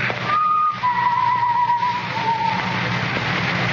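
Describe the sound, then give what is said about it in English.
Someone whistles a short, wavering tune somewhere inside a building, a few held notes rising and falling over a steady background hum, moderately loud. “The whistling was somewhere in the building.”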